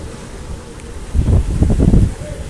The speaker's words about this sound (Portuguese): Nossa, uma ventania aqui.